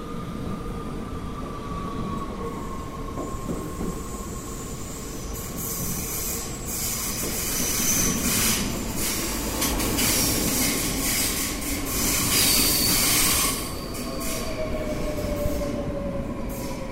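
A train rumbles steadily, its wheels squealing in high, sustained tones that swell louder midway before easing off, with continuous low rolling noise underneath and no voices.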